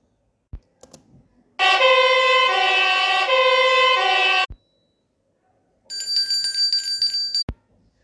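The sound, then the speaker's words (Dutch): A fire engine siren blares loudly and steadily for about three seconds, then a shorter, higher-pitched burst follows after a brief pause, with a few clicks around it. “Wie rijdt er met de brandweerwagen?”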